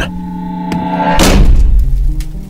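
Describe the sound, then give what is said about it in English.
The heavy front door of Bennett Manor slams shut on its own with a single loud, booming thud that rumbles low and fades slowly, over a sustained musical drone that plays before and after the impact. “The door slams shut behind you on its own.”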